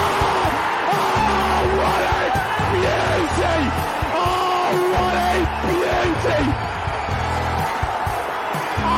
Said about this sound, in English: I waited all my life for that. What a scream!